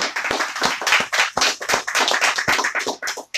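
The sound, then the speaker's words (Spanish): A church audience claps to praise the Lord in a fast, steady rhythm, the sharp overlapping hand claps forming a loud, continuous patter with no voices over it. “Vamos a dar palmas al Señor con nuestro hermano.”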